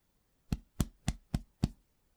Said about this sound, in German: Tipp Nummer 2. Klopfen Sie Ihren Brustkorb aus.